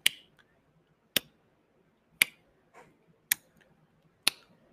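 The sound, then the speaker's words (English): A person mimics the ticking heard on an airplane as its landing gear went down, with five crisp clicks spaced evenly about a second apart, each sharp and short against a quiet background with no talking. “So I'm hearing this ticking, hear the landing gear go down.”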